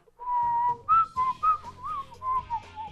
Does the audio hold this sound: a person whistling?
yes